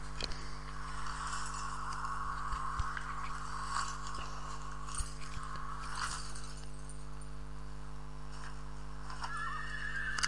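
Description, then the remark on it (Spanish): A horse whinnies and snorts over a steady low hum as a rider mounts it, with scattered clip-clopping hoof steps and nobody speaking. “tira una soga por la rama seca montan su caballo”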